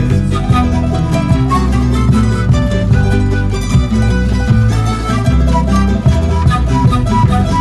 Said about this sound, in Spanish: Oye, qué buena música en pentagrama latinoamericano.